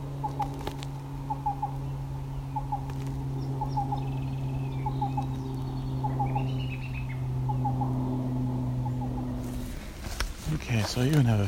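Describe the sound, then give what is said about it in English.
A black-billed cuckoo, sitting in the open, calls in short, soft groups of hollow, low-pitched notes, repeated in a steady rhythm over a continuous low droning hum, with a burst of rustling noise at the end. “It's a black-billed cuckoo, and he's sitting in the open now.”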